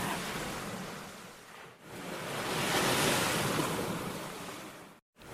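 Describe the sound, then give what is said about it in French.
Ocean surf washes steadily onto the shore, a broad hissing roar that swells to a peak midway and eases off, with a brief gap near the end. No voices. “je me disais qu'on pourrait l'emmener vers l'océan. Un peu d'air marin, ça fait jamais de mal.”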